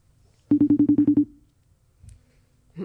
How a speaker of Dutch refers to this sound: En ik ben benieuwd of die telefoon is doorgegeven. Dus ik zou hem even gaan bellen en kijken of die wordt opgenomen.